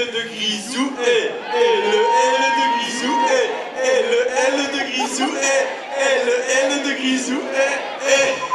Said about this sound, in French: repris par Antoine Griezmann devant la foule de fans réunis à Macon pour fêter son titre de champion du monde en juillet 2018.